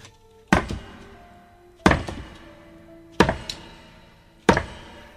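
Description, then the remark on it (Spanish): A long hammer pounds hard on a thick brick partition wall in a cellar four times in a slow, steady rhythm, each heavy thud sharp at first and then trailing off with a short rattling decay, as the wall is broken through. No one speaks. “Allí, con el largo martillo, golpeó y golpeó con fuerza el tabique de gruesos ladrillos”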